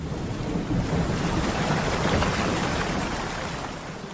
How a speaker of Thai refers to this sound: พอน้ำท่วมนี่ก็ท่วมทวีคูณ